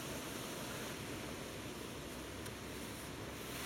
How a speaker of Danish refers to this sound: Okay, nu begynder det at regne.